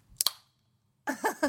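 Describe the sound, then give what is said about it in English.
A drink can cracks open with two quick, sharp metallic clicks and a short fizzing hiss, then silence before a voice comes in briefly. “Crack open a can, bitches.”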